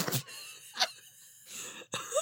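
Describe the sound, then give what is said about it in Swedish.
A voice imitates a horse neigh, with breathy snorting bursts, a thin wavering whinny and a sharp rising squeak at the end, all without ordinary speech. “Vilket djur är inte likt? Häst. Säger ju inte gnägg gnägg. Nej, det gör den alltså det är ju mer...”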